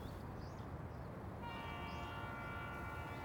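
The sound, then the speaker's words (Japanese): The whistle of a migrant train known as La Bestia (the Beast), which arrives every day at dusk, sounds a long, steady, tonal blast partway through and holds to the end, over the constant low rumble of the train rolling along. No one speaks. “なんだこの汽笛俺たちが乗ってきた列車だよ毎日夕暮れになるとやってくる列車それでここまで来たのかああ列車の屋根だけどなや屋根 移民のたまり場の列車だあの列車はベスティア野獣って呼ばれてる”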